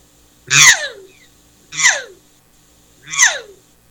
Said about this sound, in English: now i'm more so inclined to use my vocal cords and i kind of i kind of hum through my vocal cords as i'm blowing the call more like this